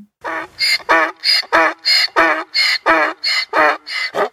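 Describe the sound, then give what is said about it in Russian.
A donkey brays loudly, a long run of about a dozen rasping, alternating hee-haw cries in a steady seesaw rhythm, with no talking. “Вот послушайте, какие звуки издает его папа, осел, чтобы не путать этих двух животных.”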